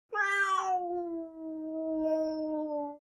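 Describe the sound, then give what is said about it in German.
A single long, drawn-out cat meow, loud and close, starting higher and sliding down into a steady wavering cry for about three seconds before cutting off. No other sounds. “Aber der hat sich schon mit seiner Freundin Piplette, der Katzendame, zu einem Rendezvous verabredet und daher kann er nicht mitkommen.”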